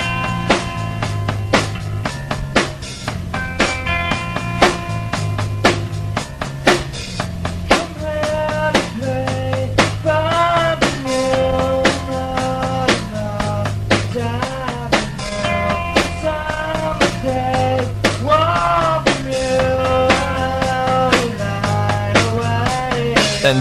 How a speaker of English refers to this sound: Now this is a home demo and then they just turned on whatever recording device they had. One, two, three, go, and it sounds like this in about 10, 15 seconds.